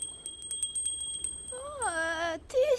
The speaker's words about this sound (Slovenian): smo mislili, da gre tramvaj. Ne, ne, no, zvonček imam, a ne zveni lepo. Lepo, če misliš z njim plašiti vrane.